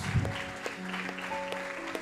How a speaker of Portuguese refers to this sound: Você pode dar um aplauso a Jesus.